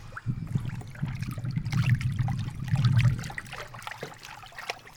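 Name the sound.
flowing river water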